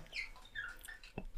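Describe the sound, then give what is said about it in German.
A cat squeaks at a radiator in several short, high-pitched chirps, quiet, followed by a soft tap near the end; no one speaks. “Also wenn du es so quietschen hörst, das ist meine Katze, die, die hat heute so eine Art, äh, die quietscht an der Heizung rum.”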